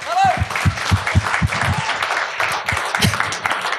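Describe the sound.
An audience applauds steadily, a dense wash of many hands clapping at a brisk rhythm, with a few voices calling out over the clapping.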